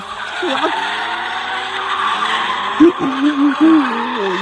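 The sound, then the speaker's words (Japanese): Car tires skid and squeal through a drift, a loud continuous screech over a steady engine roar, with wavering pitched tones rising and falling near the end. “すごいドリフトをしています”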